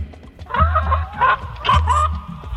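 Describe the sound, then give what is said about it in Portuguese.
Farm chickens, their necks shaved with a razor to pass as naked-neck chickens, taken to sell at a market fair, cluck in a quick series of short, nasal calls that rise and fall in bursts, loud, over a low steady hum. “Pegaram as galinhas de granja, pintaram que rasparam o pescoço com barbeador e se mandaram para vender na feira.”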